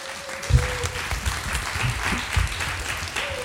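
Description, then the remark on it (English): An audience in Nashville applauds a discussion panel, a dense wash of many hands at moderate loudness, sustained for a few seconds with a faint tonal hum running underneath. “Please give a round of applause to this amazing panel.”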